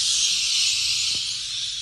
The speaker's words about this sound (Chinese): 大家有没有被那个鸟叫声给吓到了呢？真的超大声的，而且好吵哦！如果我是附近的居民，应该会很崩溃吧。